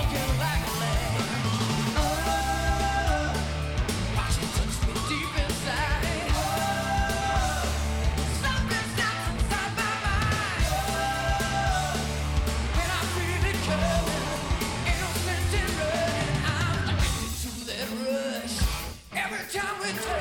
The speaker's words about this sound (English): like later on, he hits some like like the last note he hits in the, the entire song is such a like rock scream note. It's so cool.